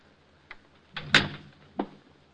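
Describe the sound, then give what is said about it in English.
A door leading into a hall is worked open: a small click, then a louder rattling clunk of the latch and swing, followed by a final sharp knock, with no voices. “This door leads into the hall.”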